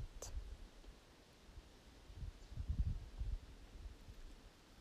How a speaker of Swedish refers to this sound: Njut en stund av att bara vara här i naturen och lyssna på hur vinden drar mellan träden, genom ditt hår, genom din kropp